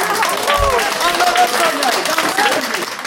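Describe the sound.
A large audience applauds loudly and steadily for about three seconds, a dense wash of clapping with a few voices cheering and calling out over it.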